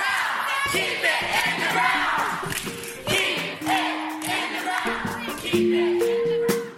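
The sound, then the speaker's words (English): Activists crashing a panel event where fossil fuels were being talked up shout loudly and continuously, several raised voices overlapping in a chaotic din with occasional claps and whoops, sustained throughout without a pause. “Activists crashed the event.”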